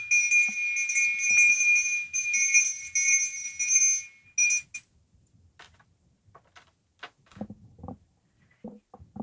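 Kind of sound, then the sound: signal or alarm, meditation bell ringing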